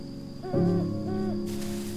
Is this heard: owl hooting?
yes